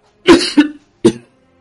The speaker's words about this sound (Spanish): Eh, perdona, que estaba tosiendo y no he escuchado.